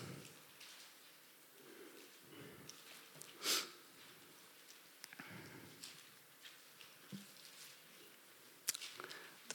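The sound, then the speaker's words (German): Soft, scattered rustling of Bible pages being leafed through to find a passage, with brief crisp flicks at irregular intervals and one sharper papery swish, fairly quiet, with no one talking. “Geräusch von Blättern.”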